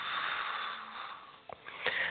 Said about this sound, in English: Inhale. Now exhale slowly. Inhale. Exhale.